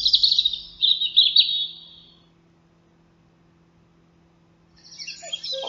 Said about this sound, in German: Rotkehlchen 50 Minuten vor Sonnenaufgang. Das ist Vogel des Jahres in Deutschland.